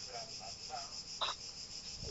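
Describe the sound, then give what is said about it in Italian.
Steady high-pitched crickets chirping outdoors where the speaker lives, heard through a window, faint and continuous, with a few brief soft chirps rising above the drone and no one talking. “Io, io, io, sento dei grilli qua dove abito io”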